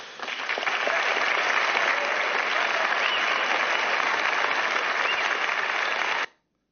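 A large audience in a film clip bursts into sustained applause, a dense, steady roar of clapping that holds at full strength for about six seconds before cutting off abruptly.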